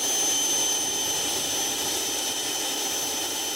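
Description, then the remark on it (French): The engine of a new type of aircraft designed by the company Jetoptera runs steadily, recorded right beside the engine: a continuous airy roar topped by a thin, high-pitched whistle that holds throughout. It sounds loud, with no voices. “Et eh bien maintenant, écoutez ce nouveau type d'avion conçu par la société Jetoptera.”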